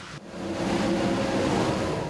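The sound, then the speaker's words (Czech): Heavy trucks rumble past on a road in the Czech Republic, travelling from Zábřeh towards Prague or Hanušovice, a loud, steady roar of engines and tyres that swells within the first moment and holds without a break. “I teď tady můžeme vidět nějaký nákladní auta, který projíždí prostě od Zábřeha směrem na Prahu nebo na, blíž tady na Hanušovice, takže tenhle, tuhle tu dopravu nám to taky veškerou odkloní odsud.”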